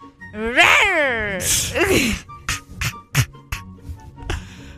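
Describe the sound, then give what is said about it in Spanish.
A person imitates a tiger's roar: a strained, wavering vocal growl lasting about a second, then a rough breathy snarl, followed by several short sharp bursts. “¿cómo le hacen los tigres?”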